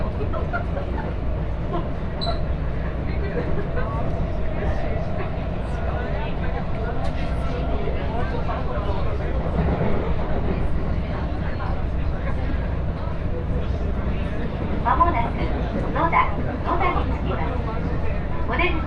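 Steady, continuous rumble inside a moving train carriage riding between stations on the Shigino to Shin-Osaka, Osaka and Taisho route, with low droning and occasional faint rattles and clicks, indistinct murmuring faintly in the background, holding an even loudness throughout.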